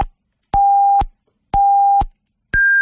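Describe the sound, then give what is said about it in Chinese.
Radio hourly time-signal beeps marking 20:00 Beijing time: evenly spaced, loud half-second electronic tones about once a second, the last one pitched noticeably higher than the others, with no voices. “来，接下来是整点报时，稍后整点报时回来继续来聊这个话题，别撂电话啊。”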